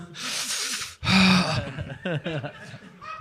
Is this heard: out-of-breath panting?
yes